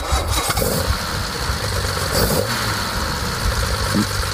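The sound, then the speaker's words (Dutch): The 3.8-litre inline-six engine of a 60-year-old Jaguar, fed by three SU carburettors, cranks and fires up, then settles into a steady, rumbling idle, with a broad mechanical hum filling the whole clip. “En die 3,8 liter 6 ah. in lijnmotor. Laat even horen.”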